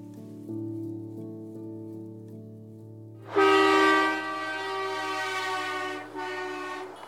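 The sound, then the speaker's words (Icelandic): Canadian truck drivers' horns blare in a sustained, overlapping chorus at a protest in Ontario, southeastern Canada, with hundreds of protesters standing by the roadside. A steady lower horn drone comes first, then a much louder, brighter air horn blast joins, dipping briefly before sounding again. “Við heyrum hér kanadíska vörubilstjóra þennja flauturnar í Ontario ríki í suðausturluta landsins á 50 dægin í síðustu viku.”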